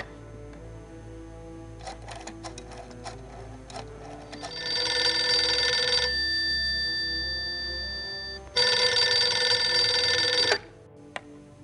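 A telephone rings twice on a call from Germany to America, each ring a long, steady electronic trill with a pause between, preceded by a few faint clicks. No one speaks.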